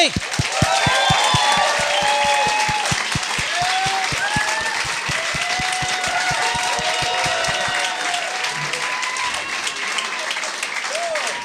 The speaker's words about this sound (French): Hey, euh, cette semaine, euh, très content d'avoir euh, mes invités. J'aimerais ça qu'on leur donne une bonne main d'applaudissement.